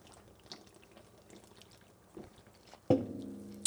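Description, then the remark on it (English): Beer pours: a few faint drips and small splashes, then a louder, steady gush of liquid near the end, with no talking. “But let's let's open a beer, yeah.”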